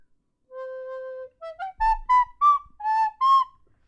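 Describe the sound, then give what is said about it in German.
A short jingle melody for a fun-fact segment plays on its own: one long held tone, then a quick run of bright, bouncy notes stepping up and down, clear and fairly loud with no talking. “Ich finde, du könntest die Melodie auch so ein bisschen anpassen.”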